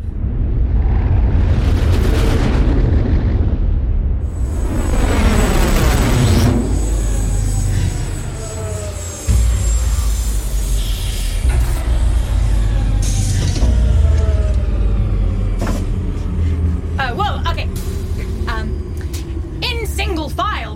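A spaceship landing on a planet: a loud, sustained engine roar with sweeping, descending whines, then sharp hissing bursts like air brakes and mechanical clunks as it settles.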